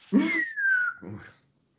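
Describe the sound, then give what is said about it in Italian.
A person whistles one short, falling note that slides downward over about a second, framed by brief breathy vocal noises at the start and end: a typical Roman expression made with a whistle. Fairly loud. “È col fischio, eh.”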